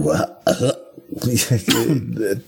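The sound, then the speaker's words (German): Players imitate retching and coughing in a quick run of throaty, gagging bursts with raspy, noisy coughs, loud, nearly continuous for a couple of seconds. “Der Referent hört, wie ich sichtlich würge wenn die diese Wirk- und Hustgeräusche machen”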